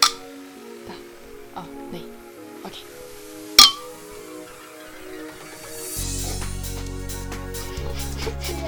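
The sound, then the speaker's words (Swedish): A single bright clink of glasses touching in a toast, sharp, preceded by a few faint taps, with soft music playing underneath that swells louder afterward. “Och vi tar sista klunken. Hej. Skål och Skål!”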